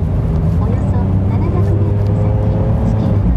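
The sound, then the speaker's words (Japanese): Somewhat light Wednesday traffic, flowing without jams, drives along a road, producing a steady, continuous rumble of engines and tyres. The low droning traffic noise stays loud and even throughout, with a faint engine whine running over it. “今日やっぱり水曜日ということもあって少し車は少ないですねうん結構流れてますよ渋滞そんなにはまってないですうん”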